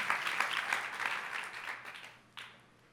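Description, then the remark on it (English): A church audience claps and cheers for the Lakers and Anniversary Sunday, a dense wash of applause that gradually fades toward the end, with a brief final burst of clapping just before it dies away. “Come on, let's clap together and thank God. I got a big cheers for the Lakers and Anniversary Sunday.”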